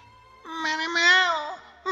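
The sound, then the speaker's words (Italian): A single drawn-out meow, apparently a human voice imitating a female cat beside a casserole of cooking lamb heads, rising and falling in pitch for about a second, fairly loud, with no other talk. “C'era la gatta lì vicino e sentendo il profumo che veniva fuori dalla casseruola diceva”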